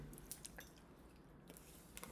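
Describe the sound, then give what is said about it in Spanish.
Wet chewing of Ruffles potato chips with small crunchy bites, a steady run of mouth noises and soft clicks over a few seconds, with no talking, as people eat them at a table. “Ah, es que se escuchan masticar porque están tragando esos güeyes.”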